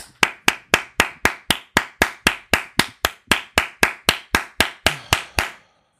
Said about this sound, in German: dann klatsche ich, dann, dann klatsch ich einfach.